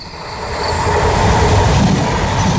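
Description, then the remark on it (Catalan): A train on the R3 rail line in the Ripollès area rumbles steadily along the rails, loud, with a continuous low roar, faint rhythmic wheel clatter and a thin high whine over the top. “Va, el que sí que hi ha el, el que sí que hi ha al Ripollès és eh, R3, línia de tren i cap allà anem, sí?”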